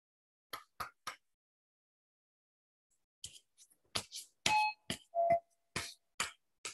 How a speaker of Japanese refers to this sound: 久しぶりだね、ピンポン。この家でピンポン初じゃないですか、これ。